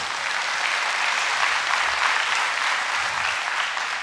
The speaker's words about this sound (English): I got to watch these kids get baptized. The children. The children always do something for me. You can clap for the kids. Like, give it up for the kids.